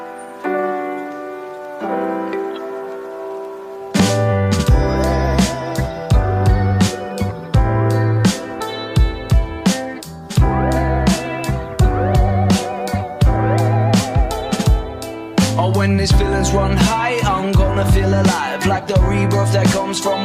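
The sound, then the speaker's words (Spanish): A pop-rock song opens with a few seconds of sustained chords before a loud full band comes in, with punchy, steady drums driving a bright, busy mix. No one speaks. “ya, bueno, vamos entonces con este temita.”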